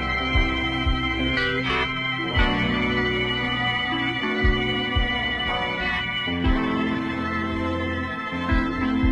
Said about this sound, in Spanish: Escuchad los teclados de esta parte.